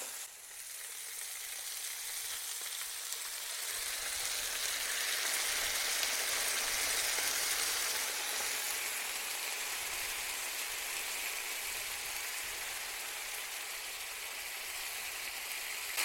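Steady, dense sizzling of meatballs frying in a pan with tomato just added, a broad hissing crackle that swells slightly after a few seconds and holds evenly throughout, with no voices.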